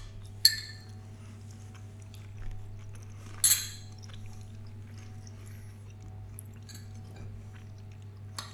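Quiet, wet chewing of a large spoonful of stew over a steady low hum, with two brief bright clinks like a spoon on a bowl and a few faint mouth sounds; no one speaks.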